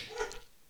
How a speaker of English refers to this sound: I'm going to apologize for the dogs in the background. This is this is what you get when you this is what you get when you record podcasts in your house.